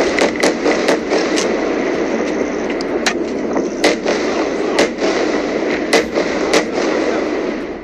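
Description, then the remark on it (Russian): Irregular automatic rifle gunshots crack out over a steady rumbling background, sharp and loud, some in quick pairs and others spaced apart, continuing for several seconds with no voices, as about 50 Hamas militants fire in different directions at an open-air festival ground. “После этого пропало электричество, а на территорию фестиваля ворвались около 50 боевиков «Хамас», которые начали стрелять в разные стороны из автоматов.”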